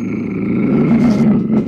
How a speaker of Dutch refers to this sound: Als de leeuw brullend naar hem toe komt, grijpt Simpson hem bij zijn bed.